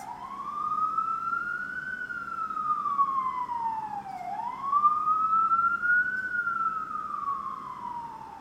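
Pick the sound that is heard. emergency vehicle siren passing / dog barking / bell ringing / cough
emergency vehicle siren passing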